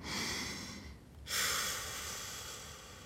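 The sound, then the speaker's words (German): A loud, breathy exhale through the nose, followed after a brief pause by a second, stronger and longer nasal exhale; no talking. “Das Thema der heutigen Sendung Ausatmen. Du hast richtig gehört.”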